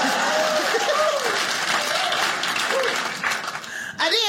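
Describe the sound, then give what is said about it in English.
A crowd claps steadily for about four seconds, a dense, loud patter of many hands with scattered voices and whoops mixed in, thinning briefly before a final rising shout. “Yeah, clap.”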